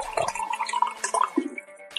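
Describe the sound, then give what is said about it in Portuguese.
Water is poured, a bright, steady trickling stream lasting a couple of seconds, followed by a soft gulp as someone takes a drink. Nobody speaks. “Barulho de água.”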